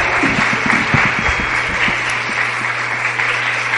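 A crowd bursts into steady, dense applause for the speaker's wife, who is assisting him in a demonstration, many hands clapping at once in a loud continuous wash that holds through the whole stretch without pause, with no voices standing out.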